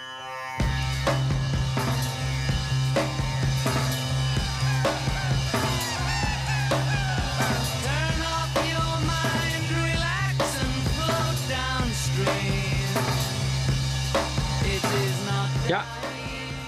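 An experimental sixties rock song plays loud and continuous over a droning bass, with looped tape effects swooping and shrieking like birds above the band throughout.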